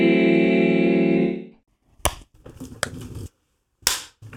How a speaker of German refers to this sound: Das ist so, das ist so ein cleaner Strich in meiner Audacity-File, mein Klatscher. Du bist einfach Klatschprofi.